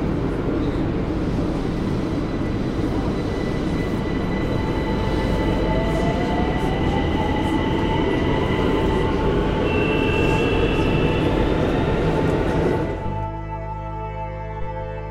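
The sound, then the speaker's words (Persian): A subway train rumbles loudly and steadily, with a rising and falling electric motor whine over the roar, before the noise cuts off abruptly near the end; the doors open for some passengers to get off, then close again. “بعضی وقتا صدای قطار نمیگذارد بیشتر در ذهنم فرو روم آنقدر صدایش بلند می شود بعد صورت می گیرد که صدایم را گم می کنم تا دوباره آرام شود و درها باز می شود به یک سری از همسفرانم هم به مقصدشان می رسند و درها دوباره بسته می شود”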